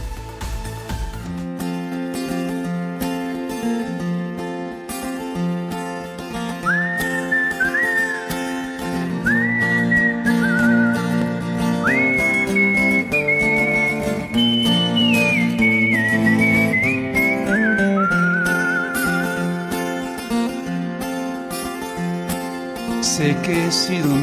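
A song intro with a band playing steadily while a clear whistled melody rises and glides above the music, bright and prominent, with no one singing or talking.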